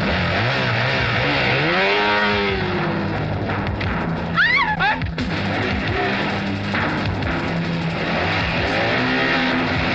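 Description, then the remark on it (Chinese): A motorcycle engine revs hard and accelerates as the rider chases someone, its pitch sweeping up and down in repeated surges, with a brief high squeal in the middle. The engine stays loud throughout, and nobody speaks. “何磊跳上摩托车，奋起直追。”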